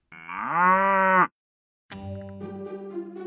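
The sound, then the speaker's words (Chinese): A dairy cow lets out a long, loud moo that rises and then holds steady, and after a short silence a second, lower and rougher call follows. No one speaks. “让我们跟着奶牛洛特一起开开心心过大年。”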